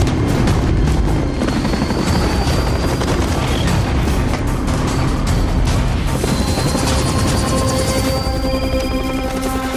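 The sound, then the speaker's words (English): A loud, steady helicopter roar with rapid rotor chop as a helicopter lands on a roof during a fight in an action movie scene, mixed with booms, crashes and bursts of action noise; high tonal whines rise toward the end. “kind of movie, where a, where a Jason Statham type is like running around uh, fighting off bad guys, and a chopper is is landing on the roof where he's having this fight.”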